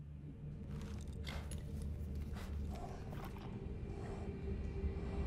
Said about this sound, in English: Snorting horse. Oof. Ah, yeah, yeah, yeah, yeah, yeah. exactly. Yeah, those pulses, you know?